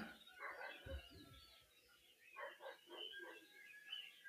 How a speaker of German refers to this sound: Bei dir zwitschert's und bellt's im Hintergrund.